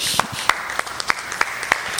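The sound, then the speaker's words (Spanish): An audience breaks into applause, a steady wash of many hands clapping with a few sharper, louder claps standing out at a regular rhythm. “¿Le puede dar un aplauso al Rey de Reyes?”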